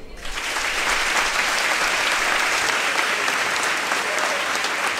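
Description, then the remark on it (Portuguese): Sustained applause from a large audience, a dense, steady wash of clapping that starts abruptly and holds at an even, loud level throughout, with no voices standing out. “Pode aplaudir.”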